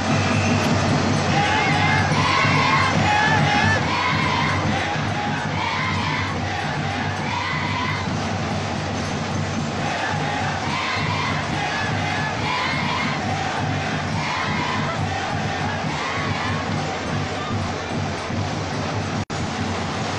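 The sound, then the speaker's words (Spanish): A large crowd sings together in a loud, sustained roar of massed voices, steady and dense for about twenty seconds with no break or single voice standing out. “extraño ya escuchar a, todos cantar así, ¿eh?”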